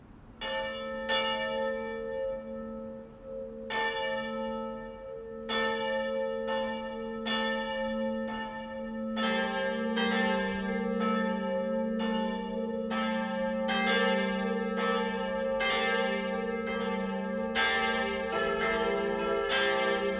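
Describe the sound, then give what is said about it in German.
Church bells of the Catholic town parish church of St. Jakob in Mitterteich, Upper Palatinate, ring the 12 o'clock noon peal, several bells striking in overlapping, irregular succession with long humming resonance, a low bell joining midway to thicken the loud, continuous toll. No voices. “Das Mittagsläuten kommt heute von der katholischen Stadtpfarrkirche St. Jakob im oberpfälzischen Mitterteich.”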